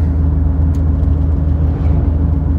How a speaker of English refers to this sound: there's some equipment, some trucks, tractor, and uh, after that the coast is clear.